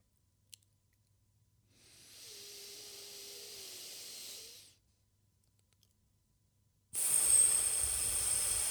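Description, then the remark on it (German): A slow, deep breath drawn in with a soft airy hiss, a pause of silence, then a louder, rushing exhale. No one speaks. “Wir atmen ein.”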